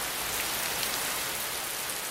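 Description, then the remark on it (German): Steady rain pattering on a surface, a dense, continuous hiss of countless drops with no pauses, moderately loud, no voices present. “Wolken entstanden, neuer Regen setzte ein und wieder Wolken und Regen, Wolken, Regen.”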